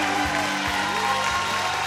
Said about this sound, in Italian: Dunque, l'applauso anche perché abbiamo mandato in onda mentre cantavi.